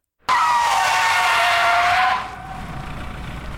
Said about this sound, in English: As I nearly faded away while passing the low strip plazas in Scarborough, the bus came to an abrupt stop.